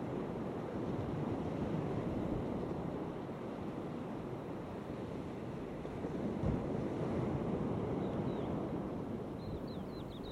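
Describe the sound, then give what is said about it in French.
Steady roar of sea surf washing in continuously, with a gentle swell midway and a hint of wind; faint chirps appear briefly near the end, and no one speaks. “mer, c'est surtout ce, bruit régulier. On voit que c'est la nature qui, c'est le soleil, la lune qui, fait les vagues.”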